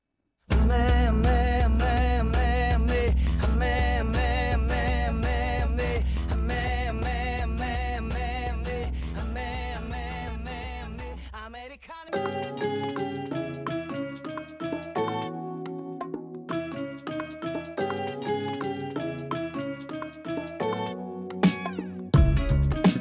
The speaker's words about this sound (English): And here's the song that I was talking about. Listen for it. I'm telling you, it totally sounds like instead of bagel chuseo, listen for bagel chuseo.